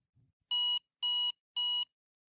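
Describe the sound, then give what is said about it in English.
A soft click as a button on the right edge of a power bank is pressed, then three identical electronic beeps from its battery indicator, evenly spaced about half a second apart, loud and bright, signalling between 50 and 75% battery. “On the right edge of the power bank is a button that you can press to quickly hear the status of the battery.”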